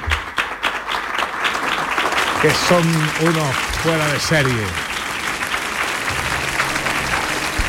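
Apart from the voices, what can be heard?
audience applause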